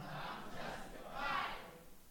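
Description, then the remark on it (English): A crowd of voices shouts out together in a loud, sustained collective response to the speaker's call to shout "I'm justified," swelling toward the middle before fading, with a broad blur of many people calling at once. “Somebody shout it, I'm justified.”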